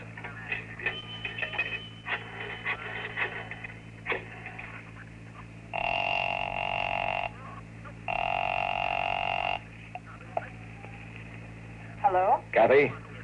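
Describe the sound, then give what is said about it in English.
A 10-cent coin clinks into a payphone, followed by a run of clicking dial sounds, then two long, buzzing telephone rings before a brief, tinny voice answers at the end. “I stopped to look up an address in the phone book, and then I invested 10 cents.”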